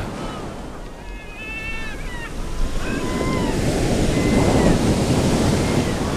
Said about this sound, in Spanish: Y este, no, el fresquito es este, perdón, que es cuando ya las olas hacen largas ondas, largos trenes y desploman en la playa.